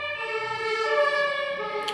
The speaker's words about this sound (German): Feuerwehr.